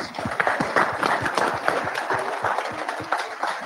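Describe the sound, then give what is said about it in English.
A crowd at a company driver meeting applauding steadily, many hands clapping in a dense, irregular patter that stays fairly loud and even throughout without any talking over it. “So give yourself a round of applause, please.”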